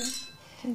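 Glasses clink together in a quick, bright toast, the ringing chime fading fast, followed by the start of a voice talking.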